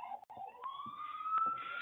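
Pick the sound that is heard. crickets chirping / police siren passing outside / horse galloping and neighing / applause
police siren passing outside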